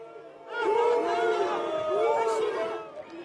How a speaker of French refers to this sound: Autre mission, venir en aide aux CRS ou gendarmes en difficulté en procédant à des bons offensifs. Bien souvent, sous les huées des manifestants.